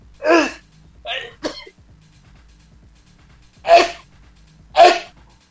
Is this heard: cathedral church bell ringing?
no